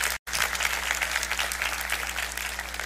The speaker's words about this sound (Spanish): Amén. Sigue, aplaudamos al Señor.